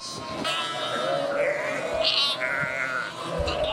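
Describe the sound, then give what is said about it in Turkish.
A dense chorus of sheep bleating, many overlapping high and low calls as lambs, let out when the doors open, run to their waiting ewes and each tries to find its own mother, continuous like a crowded flock, with no pauses in the noise. “Her koyun kendi kutusunu e, hem kokusunu hem sesinin hem duyuları, koku duyularını bir şekilde bulmaya çalışıyor.”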